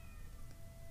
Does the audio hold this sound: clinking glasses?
no